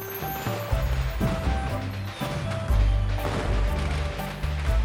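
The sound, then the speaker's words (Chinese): New Year firecrackers, set off to see out the old year and welcome the new, crackle and pop in a dense, rapid barrage that stays loud throughout, sharp snaps overlapping in an irregular rhythm above a low, droning musical backing. “以噼里啪啦的爆竹声来辞旧迎新，所以今天我们的新年系列故事讲的就是放爆竹，快来听听吧。”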